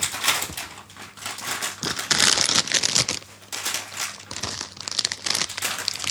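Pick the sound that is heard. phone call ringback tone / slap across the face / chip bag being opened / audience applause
chip bag being opened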